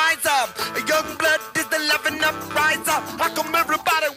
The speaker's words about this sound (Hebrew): ועוד הדבר המיוחד ששומעים ברקע זה כלי נגינה שנקרא נבל פה. אה, אלה שאתם שומעים.